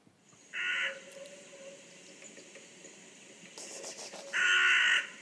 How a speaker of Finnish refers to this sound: Saisinko mä soitettua vähän variksen ääntä?